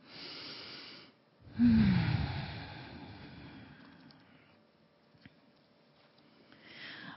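A deep breath taken before opening the eyes: a short airy inhale, a brief pause, then a longer, louder exhale that slowly fades out. No one speaks.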